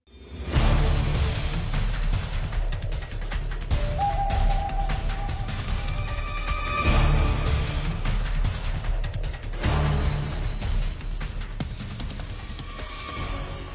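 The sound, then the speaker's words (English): Dense, driving action music with heavy low percussion and sustained tones, loud and continuous throughout: the alert theme for the South America chapter of a stealth video game, heard when the player is spotted. No voices are heard. “This is the alert theme for the South America chapter,”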